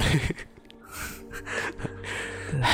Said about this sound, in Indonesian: napas kedengeran di mic